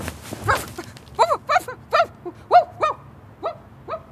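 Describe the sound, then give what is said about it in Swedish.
A dog barks in a quick, uneven series of about nine sharp barks, some rising into high yelping whimpers, with short pauses between them and no other sounds around. “Stopp! Stopp! Stanna! Jaha, ja, dit for den hunden.”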